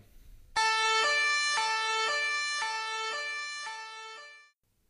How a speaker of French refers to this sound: Voilà, donc c'était la sirène des patrouilles des vignobles de Bourgogne.